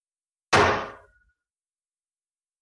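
A closet door slams shut once with a loud, close bang, its wooden rattle fading within a second, followed by silence and a faint knock at the very end.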